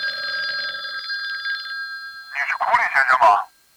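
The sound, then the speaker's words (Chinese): A home telephone rings in the evening with a steady, high, buzzing electronic tone for about two seconds, then stops, followed by a brief burst of voice-like sound. “一进家门，就接到了一个神秘的电话。”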